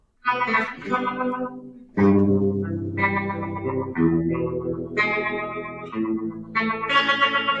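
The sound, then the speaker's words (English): A loud, distorted thrash metal riff played on a hollow-body guitar: heavy, buzzing chords that shift roughly once a second, ringing out with bright, gritty overtones and no voices. “Hey, thrash metal.”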